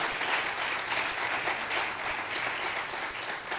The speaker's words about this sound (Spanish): Aplaude al Señor de la Gloria.